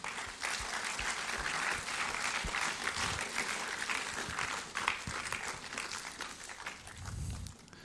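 Sustained audience applause welcoming four guests on stage fills the whole stretch, a dense, steady patter of many hands clapping with no voices over it.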